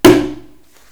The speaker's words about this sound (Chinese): 大熊把小老鼠的尾巴提了起来，把它赶出去，用丢的哦，丢出去，用力的关上门，